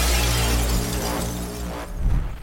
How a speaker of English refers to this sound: the two wrestled back and forth before crashing through the window.